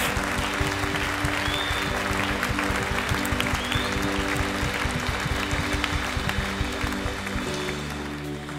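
An audience applauds steadily, a dense wash of clapping that holds at full strength for several seconds before beginning to thin out toward the end.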